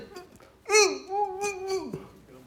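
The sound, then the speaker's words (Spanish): A pastor imitates a man unable to speak, making a short burst of muffled, wordless mumbling with rising and falling pitch, fairly loud, lasting about a second and a half. “No puede hablar.”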